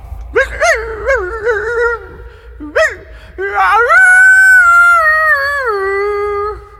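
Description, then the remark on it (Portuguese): A dog howls alone: a few short rising whimpering yelps, then one long, loud wavering howl that slowly falls in pitch before cutting off. “Um homem e sua esposa estavam dormindo e de repente o cachorro começa a uivar.”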